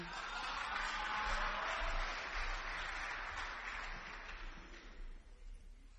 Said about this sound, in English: So I'd like us to just give a big round of applause as we welcome Brother Spa to come and share his testimony.